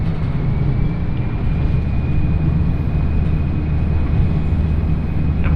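A steady, loud low rumble of a train running on the Yodo Line in Japan, between Uwajima and Chikanaga, heard from inside a carriage, with a constant droning hum and a faint high whine throughout; no one speaks.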